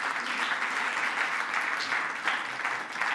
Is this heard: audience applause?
yes